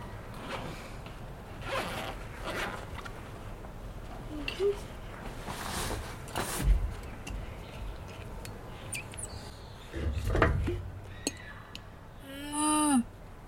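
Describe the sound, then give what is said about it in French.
Footsteps of neighbours walking upstairs, mimicked with a water bottle: irregular, fairly quiet thumps and rustling scrapes, a couple of heavier thuds, then a short squeaky sound at the end. “Quand je suis dans mon lit le dimanche matin et que j'entends euh, les voisins qui marchent au-dessus, je vais vous le montrer avec ma gourde.”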